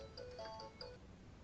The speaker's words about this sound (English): we have a phone call here.